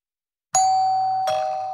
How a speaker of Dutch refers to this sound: Dus er zit maar één ding op: opnieuw gaan aanbellen, gewoon bij buurtbewoners.